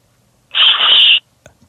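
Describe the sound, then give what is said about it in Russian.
A voice imitates an alarm clock's glass and mechanism smashing against a wall: one loud, hissy, crashing burst lasting under a second, followed by a faint click in quiet. “Смотри, как будто стекло и механизм разбивается о стену.”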